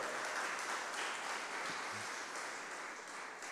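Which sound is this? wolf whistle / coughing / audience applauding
audience applauding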